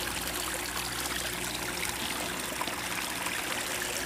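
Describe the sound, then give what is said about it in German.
A small, step-wide mountain stream flowing down the mountain during a thaw trickles and burbles steadily, a continuous bright watery wash with no voices over it. “hier ist Tauwetter und wir steigen gerade über einen äh, ja, schrittbreiten kleinen Bach, Schrägstrich Rinnsal, das hier den Berg herunterfließt.”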